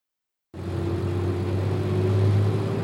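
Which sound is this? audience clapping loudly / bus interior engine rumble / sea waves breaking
bus interior engine rumble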